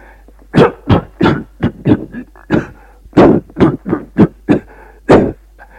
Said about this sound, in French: Auguste se lève en toussant un peu.